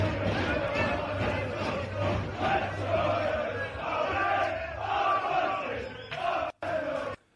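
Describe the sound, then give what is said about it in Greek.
A large crowd of football fans in Ladadika chants a slogan in unison, filmed the night before. Loud rhythmic shouting with repeated phrases runs over a steady low drone underneath, cutting off abruptly near the end. “Και ένα άλλο σύνθημα που φωνάζανε.”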